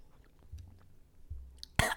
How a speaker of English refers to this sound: I'm gonna take a big sip of water, and then we're gonna get into this shit.